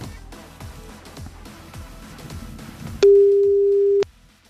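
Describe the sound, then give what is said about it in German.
A single steady telephone tone sounds loudly for about a second, the beep of a second outgoing call, cutting in after a stretch of rhythmic background music with low pulsing beats. “Und zweiter Call. Geht raus an dieser Stelle.”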